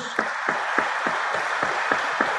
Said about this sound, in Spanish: Démosle un aplauso al niño Jesús.